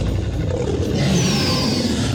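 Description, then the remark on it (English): A loud, sustained dinosaur roar with a deep, rumbling growl, rising into a harsh, gritty bellow that fills the whole clip with no voices; in a children's story, Stuart the dinosaur roars his loudest roar to startle Bobby the Brontosaur. “He knew he wanted to be naughty in that moment, so he roared his loudest roar.”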